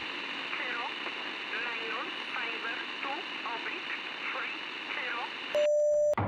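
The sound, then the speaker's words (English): Coded spy signals transmitted overnight over a radio station's air: radio static carries a steady high tone and rapid warbling, chirping signal bursts that repeat for several seconds, then cut to a short, much louder burst of stacked electronic beeps. “Kyle's friend Igor was transmitting spy signals overnight on our air.”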